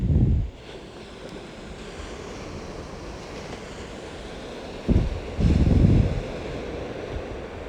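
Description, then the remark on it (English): Steady ocean surf washes in at Santa Barbara in the evening, with a few heavy gusts of wind buffeting the microphone in low rumbling bursts. Nobody speaks. “Oh, the sound of the waves and the cicadas just make it beautiful.”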